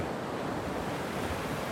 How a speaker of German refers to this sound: fertig, Welle kommt.